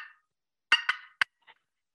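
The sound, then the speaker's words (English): Sharp, clucking cuts from a turkey call: a quick pair of loud, raspy notes, then a single sharp one and a fainter short note, spaced irregularly against silence. “You can also do little cuts”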